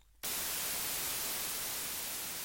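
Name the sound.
white noise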